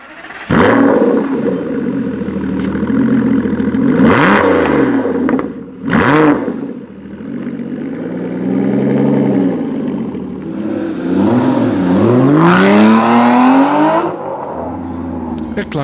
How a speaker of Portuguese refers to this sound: Eu V12 Aston Martin. O V12, nesse caso, é um V12 Vantage.